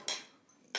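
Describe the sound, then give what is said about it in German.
Three martini glasses clink together in a toast: two bright, ringing clinks with a faint extra touch between them and a short shimmering decay after each. Nobody speaks. “Ich würde sagen, wir stoßen einmal an, auch mit ja.”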